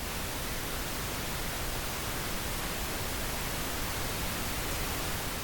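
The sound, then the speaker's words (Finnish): Steady pink noise hisses evenly for the whole stretch, a soft, full-bodied rushing with a deeper, warmer tone than white noise. No voices or other sounds break it. “Ja tältä taas vaaleanpunainen kohina.”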